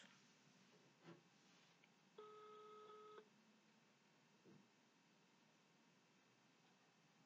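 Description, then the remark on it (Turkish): A single steady telephone ringing tone sounds for about a second as a call is placed to a guest, fairly quiet, amid near silence with a few faint clicks before and after. No one speaks. “Çalıyoruz.”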